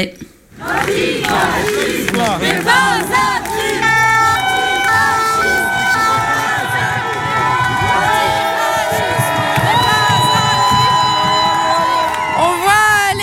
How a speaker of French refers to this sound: Euh, les gens sont trop contents, du coup ils crient et il y a eu un petit fumigène pour mettre l'ambiance.